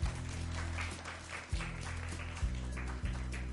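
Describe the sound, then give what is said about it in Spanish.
A crowd applauds steadily, a dense wash of many hands clapping at once, with a low musical hum sustained underneath throughout. “Un aplauso para Toby, por favor.”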